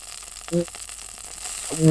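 Rock lizard meat sizzles steadily in a hot pan on Mars, a continuous crackling hiss, with two short voiced sounds from someone breaking in briefly.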